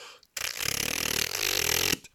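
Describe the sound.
A voice produces a fast, continuous tongue trill for about a second and a half, a loud rattling buzz imitating machine-gun noise that sounds like a moped engine or an electric toothbrush. It is steady, with no talking.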